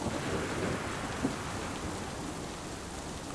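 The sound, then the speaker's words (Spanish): Heavy rain pours steadily, beating on the windshield of a slowly moving Ford van, with a deep, continuous rumble of thunder underneath, loud throughout, with one brief sharper burst partway through and no voices. “Se escucha un estruendo fortísimo.”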